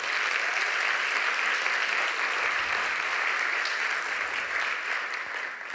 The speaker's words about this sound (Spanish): Todo eso que yo viví un aplauso bien fuerte al Señor.